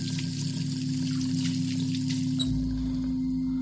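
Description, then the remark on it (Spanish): Water runs steadily from a tap as someone washes their hands in a bathroom, with a constant hiss and splash over a low, droning hum; the flow's tone shifts slightly about two-thirds of the way through. No one speaks. “Más tarde, Walt se lava las manos en el cuarto de baño.”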